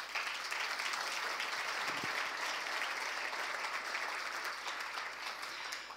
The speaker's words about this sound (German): Ich glaube, da dürfen wir für ihn klatschen.